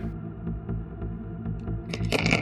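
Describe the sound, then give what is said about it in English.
Five dice clatter and rattle across a hard surface during a tabletop role-playing perception check, a quick burst of sharp clicks near the end after a few faint taps over a steady low hum. “Rolling dice, rolling dice, the fun of rolling dice.”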